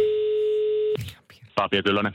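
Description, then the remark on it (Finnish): A steady, loud electronic telephone tone holds for about a second, then cuts off abruptly as a phone line to the VR railway restaurant-car food manager connects and voices begin talking. “Meillä on hommattu tänne puhelinyhteydet nyt sitten eh, äh, VRn lihis- ja nakki vastaavalle.”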